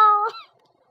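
A single cat meow, loud and high-pitched with a bright, tonal quality, bending in pitch near its end before trailing off into near silence.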